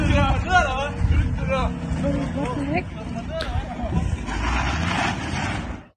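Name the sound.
car driving at speed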